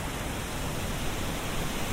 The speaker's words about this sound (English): And the water comes from the river as it goes to, to whip around this island to the right, it whooshes over these stones and you can you can hear that lovely sound. It reminds me of the, the weir in Durham, that rushing sound.